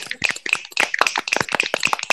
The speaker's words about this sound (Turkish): Yok mu bir alkış? Var mı bir alkış? Var mı bir alkış?